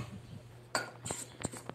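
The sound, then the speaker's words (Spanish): A spoon works dough in a bowl by hand, mixing until it is compact, giving four or five scraping clinks against the bowl's side at an uneven pace, bright and moderately loud over a low hum. “Y vamos a hacerlo con una cuchara.”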